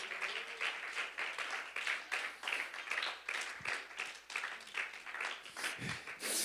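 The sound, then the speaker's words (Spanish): An audience applauds steadily in praise of God's presence during a worship service, many hands clapping in a dense, continuous patter with slight rhythmic swells, moderately loud and sustained throughout with no talking over it. “Aplauda su hermosa presencia.”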